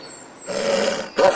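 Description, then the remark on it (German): A butcher's dog growls in two loud, rough bursts: a sustained rumbling snarl followed by a shorter, harsher one. No one speaks. “Wieso knurrst du mich denn an?”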